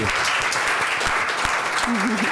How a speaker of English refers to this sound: it's a pleasure to invite up Kjetil Lund, Vice Mayor for Business Development and Public Ownership, Oslo, Oslo City Government. Please come up and please give him a give applause.